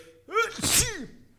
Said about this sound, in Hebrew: אה, לבריאות, לבריאות, או-אה. תודה. הפצ'י בחסות.